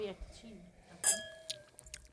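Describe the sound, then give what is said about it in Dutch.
A bright clink of glasses touching in a toast rings out and slowly fades, followed by a few lighter taps, with quiet voices murmuring in the background. “nou jongens, proost. Proost. Proost, leuk.”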